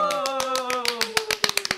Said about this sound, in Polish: Proszę o brawa, proszę o brawa